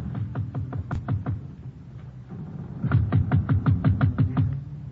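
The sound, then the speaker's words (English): Two bursts of sharp, rapid knocking on the door of Vuko's cabin below deck on a ship, about seven raps, a pause, then a longer run of ten, over a steady low engine hum. “I wait a short distance away while he knocks on the door.”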